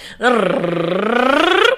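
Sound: vocal warm-up exercise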